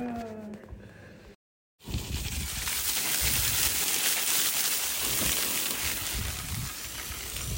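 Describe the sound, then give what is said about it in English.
A high-pressure hose at a gas station sprays steadily and loudly for several seconds, a dense hissing rush of water washing bikes, after a brief moment of quieter sound and a short silence. “This is the noise of uh, bike washing at the gas station, kind of.”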